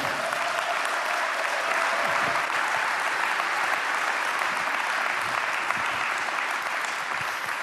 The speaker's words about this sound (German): Gib Gott einen Applaus heute Abend.